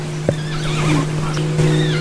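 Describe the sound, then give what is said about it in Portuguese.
A curl-crested jay in a backyard mimics a horse's neigh: a wavering, whinny-like call rising and falling for about two seconds, over a steady low engine-like hum. “Que eu escutei ela imitar o relinchar de um cavalo.”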